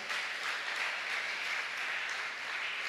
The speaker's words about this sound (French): E on applaudit le Seigneur pour ça.